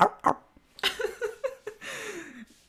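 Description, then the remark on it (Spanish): A person's voice mimics a dog barking: two quick yaps, then a run of five or six short woofs ending in a drawn-out, falling whine, fairly loud. “Hasta me voy a poner a ladrar.”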